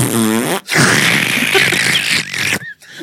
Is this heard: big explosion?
no